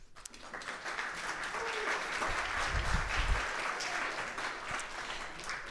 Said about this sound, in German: Der erste Applaus darf jetzt kommen.